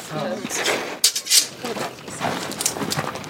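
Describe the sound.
A heavy sword is swung through the air, making a few sharp, close whooshes in quick succession, with voices murmuring and clattering in the background.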